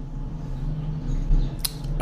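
A steady low mechanical drone hums from a drill running outside on the street, with a brief sharp clack near the end and no voices.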